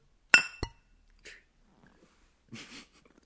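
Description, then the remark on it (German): Two glasses clink together in quick succession in a toast, bright and ringing, followed by a soft shuffle and a brief breathy sound near the end. “Du, dann, dann äh, Prost, ne? Prost!”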